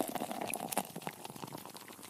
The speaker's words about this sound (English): i'm going to crack open a cold one and pour myself a glass and raise a toast in honor of all of the real men out there